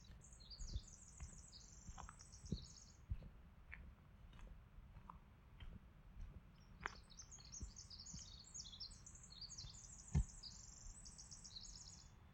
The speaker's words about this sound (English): I don't know if you can hear that. Sounds wonderful. I don't know my bird sounds very well, but I do know that I've been seeing a lot of American robin thrush around here.